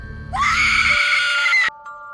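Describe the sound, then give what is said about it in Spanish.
A woman lets out a loud, sustained high-pitched scream lasting over a second, rising sharply at the start and cutting off abruptly, with no talking. “Entonces sujetó a la mujer y le colocó la espada en la boca, y lleno de celos y furia, le cortó la boca mientras ella no paraba de gritar.”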